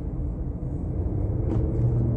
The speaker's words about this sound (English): just have a truck pulling out in front of us.